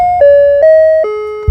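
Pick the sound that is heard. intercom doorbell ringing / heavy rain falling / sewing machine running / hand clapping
intercom doorbell ringing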